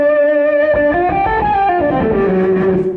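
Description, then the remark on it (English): A loud, sustained electric guitar riff played through an octave pedal placed in front of an overdrive pedal, with a thick, overdriven tone and an added octave-up shimmer, notes ringing into one another with no one talking. “Uh, and then the octava in front of it sounds like this.”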